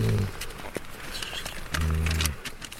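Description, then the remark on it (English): A sedated male cougar, hooded and tranquilized, snores: two deep, rumbling snores about a second and a half apart, each a short harmonic growl, with faint clicks and rustling in between. “He can even hear the cat snoring.”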